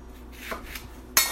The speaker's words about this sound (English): most of the seeds were already knocked out of it. I just knocked some out, and now I'm chopping it. I've cut it into sort of half inch strips, and then I'm going to cut it crosswise in smaller pieces.